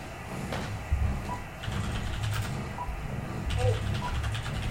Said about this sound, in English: Well, I've heard radios that don't have that test connected. They don't get static this loud.